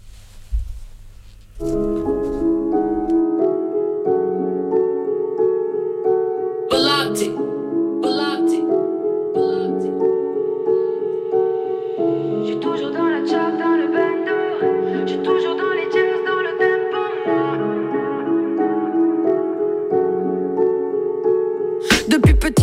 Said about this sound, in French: Ben, on va écouter un petit peu de musique.